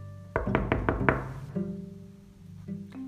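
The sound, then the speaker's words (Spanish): Five quick, firm knocks on the wooden door of Cochinito's house, made by Sapo and Pata, in a steady rhythm and fairly loud, followed by soft sustained musical tones with no voices. “Llegaron jadeando a la casa de Cochinito y golpearon la puerta.”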